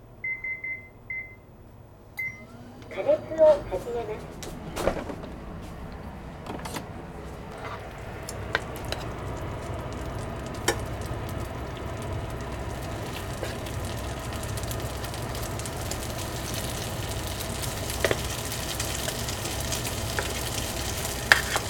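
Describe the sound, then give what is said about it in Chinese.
A few short electronic beeps at the start, then beef hits an unwashed, already-used pan and a steady, loud sizzle takes over with scattered pops and crackles, continuing throughout with no voices. “剩下的锅也不用洗，我们就就可以直接开始来煎牛肉。”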